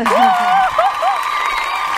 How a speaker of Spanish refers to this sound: Vamos, otro aplauso, otro aplauso que debutaron.